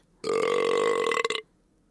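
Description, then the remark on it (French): A huge, drawn-out garlic burp, loud and buzzy with a steady low pitch for about a second, breaking into a few sputtering pulses before it stops. No talking. “Et elle repart par la porte d'entrée, non sans avoir ponctué son discours d'un énorme roux à l'ail.”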